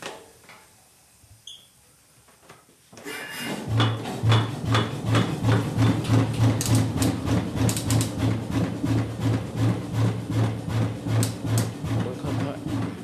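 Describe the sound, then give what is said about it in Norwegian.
After a few quiet seconds, a burst of compressed air starts an old engine. It keeps running with a loud, steady, rhythmic thumping and knocking. “Artig å leke seg med motorene. Dette er fin lyd”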